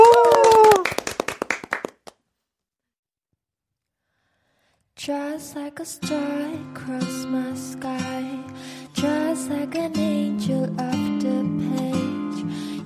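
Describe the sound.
Loud audience applause welcoming a live song performance, with dense clapping lasting about two seconds and a voice briefly heard at its start, then it cuts to silence before steady music begins.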